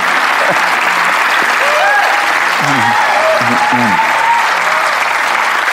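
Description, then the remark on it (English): An audience at a church service applauds a speaker before they begin to speak, a dense, even wash of clapping that holds at full loudness throughout, with a few faint voices calling out beneath it. “I mean, applauding before I speak, you may not feel like ever again.”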